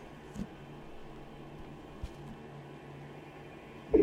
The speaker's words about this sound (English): Martens Electroacoustic Humming.